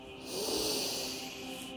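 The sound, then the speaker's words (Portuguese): A deep, airy breath drawn in and let out during a guided meditation breathing exercise, a steady rush of air that swells and then eases off, with no talking. “Então, inspira e expira profundamente agora”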